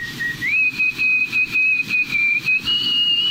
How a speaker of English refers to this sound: She says her nose has been whistling since the age of seven.